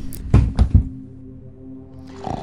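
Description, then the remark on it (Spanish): A man, straining to reach a case, falls and lands lying on the floor: three heavy thuds in quick succession, followed by a low lingering resonance and a faint rustle of movement at the end. “Volvió a intentar llegar al estuche y por el esfuerzo cayó tumbado.”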